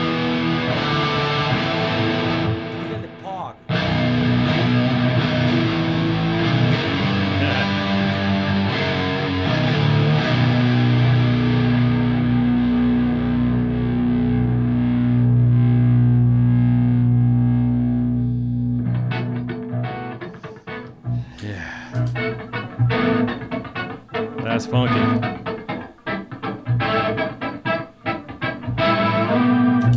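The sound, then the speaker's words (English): A low-tuned baritone guitar rings out with thick, sustained distorted tones, then shifts to quick plucked notes whose delay repeats echo in a busy, bouncing rhythm, with no voices. “when you add the delay to that little plucking part, it makes it all extra funky.”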